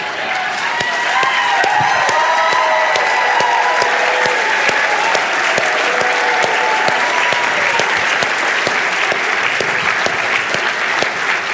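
A large crowd applauds steadily for several seconds, dense clapping filling the room, with scattered cheers and excited voices rising above it.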